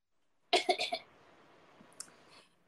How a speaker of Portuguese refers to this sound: Nossa, vou até tossir aqui que o trauma veio.